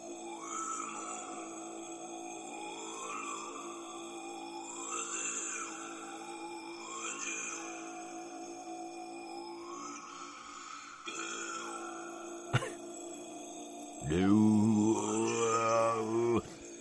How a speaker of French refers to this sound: Franchement, eh, c'est métal de ouf en fait, le mantra tibétain. Je me suis mis ça en boucle.